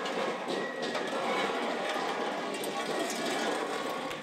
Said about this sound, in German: Ein Narrenumzug zieht durch Grosselfingen. Doch anders als bei den Zügen der schwäbisch-alemannischen Fasnet kommen alle 39 Narrenfiguren aus dem Ort selbst. Der noch relativ ungeordnete Zug zieht auf den Marktplatz ein.